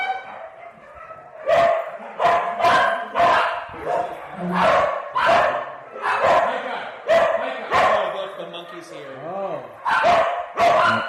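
Dogs bark loudly in a rapid, overlapping series of sharp barks that run throughout, with a brief whining yelp near the end.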